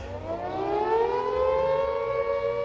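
A loud civil defense air raid siren, a bomb shelter warning, wails steadily, its tone slowly rising and bending in pitch as it sustains throughout, with no voices present.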